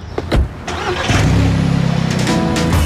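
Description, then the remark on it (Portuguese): A car engine cranks with a couple of short bursts, then catches and settles into a steady, rumbling idle with a rapid pulsing rhythm, fairly loud. “Bora, vamos dar um rolé.”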